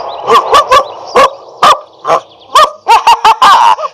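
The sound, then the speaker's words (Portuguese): A dog barks over and over in short, sharp bursts, about a dozen yaps in an uneven rhythm, loud, with no one talking. “Eu estou falando do cachorro.”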